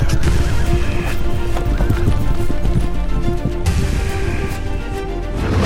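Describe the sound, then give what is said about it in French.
Horse hooves clip-clop in a steady, brisk rhythm, loud and continuous, as a rider sets off on horseback with a squire following, with a horse neighing partway through. “Il sauta sur son cheval, son écuyer à sa suite, bien décidé à tirer au clair ce mystère.”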